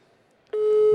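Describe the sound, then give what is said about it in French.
A steady, single-pitched telephone ringback tone on an outgoing call, the second ring, begins halfway through after near silence and holds loud until the end, with no talking over it. “Deuxième hein. sonnerie.”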